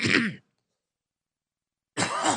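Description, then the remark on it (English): Two short, harsh bursts of throat clearing and coughing, separated by about a second and a half of silence. No talking. “this is so bad. I need a cough button.”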